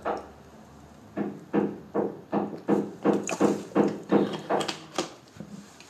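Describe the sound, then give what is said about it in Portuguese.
Steady hammering by a neighbour doing DIY, roughly a dozen dull, muffled blows struck in a quick, even rhythm after a brief quiet start. “Olha, o meu vizinho anda aqui às marteladas.”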